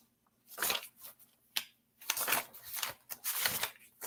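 Papers rustle and shuffle in quick, irregular bursts, crisp crinkling and flapping sheets with short pauses between, as someone hurriedly leafs through a stack searching for a paper.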